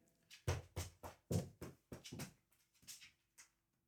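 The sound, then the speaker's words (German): A dog lying on a person's right leg whimpers and whines in a string of short, high, breathy cries, some louder than others, with no talking over it. “ansonsten habe ich jetzt einen Hund auf meinem rechten Bein.”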